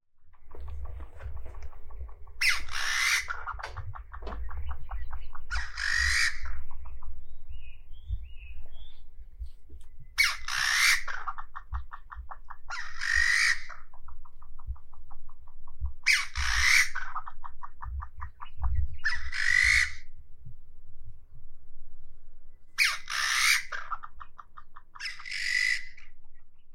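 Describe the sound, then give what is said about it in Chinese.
A field recording from a wood in Taiwan: loud, repeated calls of bamboo partridges ring out in paired bursts of harsh, rising squawks, each phrase roughly every few seconds, over a steady low rumble with no talking. “这是什么样的一种鸟？”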